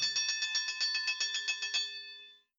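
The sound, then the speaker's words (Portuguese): A fire alarm bell rings with a rapid, steady metallic clatter of bright, high strikes for about two seconds, then stops and its tone fades out. No one speaks. “E soou o alarme de incêndio.”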